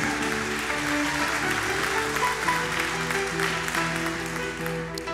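An audience claps loudly and steadily as applause to the Lord, a dense wash of applause sustained throughout, with sustained musical tones humming underneath and no talk over it.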